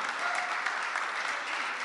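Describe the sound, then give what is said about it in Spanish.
An audience applauds as an offering of praise to the King of Glory. Many hands clap together in a dense, steady wash that holds at an even, fairly loud level for the whole two seconds, with no speech. “¿Cuánto pueden darle una ofrenda de palmas, Rey de Gloria?”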